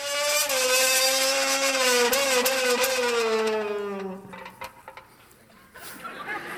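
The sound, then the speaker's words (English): A voice imitates a revving Formula One car engine through a hollow metal can, a loud buzzing drone with a slowly falling pitch for about four seconds, then fading into scattered faint clatter and noise. “God didn't intend for you to just have the 30 second thrill of making engine noises with a can.”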